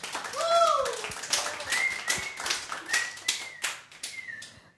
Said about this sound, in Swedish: Applåder!